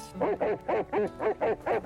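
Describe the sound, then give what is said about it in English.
A dog barks in a quick, steady series of about seven sharp, mid-pitched yaps, each evenly spaced and fairly loud, with no one speaking. “Quiet, damn dog.”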